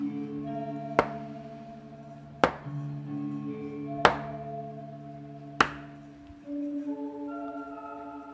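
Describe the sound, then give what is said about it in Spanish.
Four slow, heavy footsteps of a person gradually approaching in the dark land at even intervals, each a sharp thud standing out over a sustained, droning musical background whose tone shifts after the last step, the steps stopping in front of a bedroom door. No one speaks. “Estaba solo, con el sentido del tacto y el auditivo, escuchando cómo poco a poco esa persona se acercaba.”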